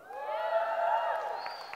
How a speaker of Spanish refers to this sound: Sí, dáselo, pero dáselo fuerte. Dale un fuerte aplauso a Dios.